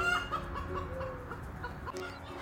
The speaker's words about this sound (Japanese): 話し始めると結構鶏さんも自己主張してくるなっていうぐらい笑える環境で